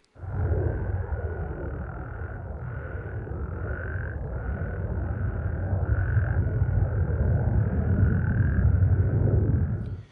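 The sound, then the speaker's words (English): A dense chorus of frogs trills in a steady high band, with breaks in the chorusing at about two and a half, four and a half and six and a half seconds, while the deep, continuous roar of a passing jet flyby rumbles underneath for the full length, with no talking. “Now, at the end of that flyby, it took the frogs fully 45 minutes to regain their chorusing synchronicity”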